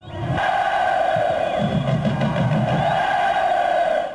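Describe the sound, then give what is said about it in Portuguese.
Football fans of the Chavante supporters cheer and chant together in a loud, sustained roar of many voices, with a steady droning tone running through it and no break for the full four seconds; these are audio recordings the fans sent in, excited about Rogério's arrival. “Obrigado, torcida Chavante, por mandar. O pessoal bem empolgado com a chegada do Rogério, quarta passagem.”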